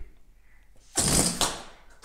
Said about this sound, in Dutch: Het ballonnetje vliegt zomaar weg, omdat hij als het ware ook kracht ontvangen heeft.